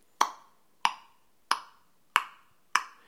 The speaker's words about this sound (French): les clics, les sons que les cachalots font lorsqu'ils cherchent dans les profondeurs les calmars, lorsqu'il a repéré ces sons, il nous guide sur euh, les, les cachalots et nous attendons qu'ils remontent en surface pour pouvoir nous immerger avec eux